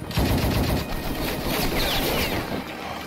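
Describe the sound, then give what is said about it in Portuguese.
Rapid, sustained bursts of automatic gunfire rattle loudly and continuously for a few seconds, dense overlapping shots with no voices. “Toma tiro então, Yoga.”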